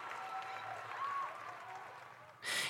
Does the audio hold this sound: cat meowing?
no